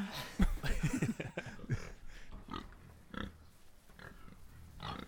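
A pig grunts and oinks in a rapid, snuffling cluster at first, then lets out a few sparser grunts, fairly loud, with no talking.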